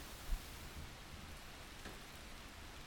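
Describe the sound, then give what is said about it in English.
Steady, soft rain falls in a continuous hiss, with no voices, and a faint low thump near the start. The patter stays even and fairly quiet throughout. “when the clouds rain, the Nefelibatas feel all the happiness in the world.”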